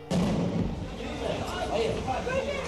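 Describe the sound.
A sharp explosive blast as a door is blown open, followed by a chaotic wash of noise, shouting voices and commotion that stays loud throughout.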